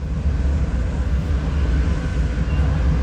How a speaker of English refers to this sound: Oh, wow, I can hear that kind of echoey, rushing sound of the train going right through the tunnels. In total, the line goes through mountains 427 times, it crosses rivers 80 times.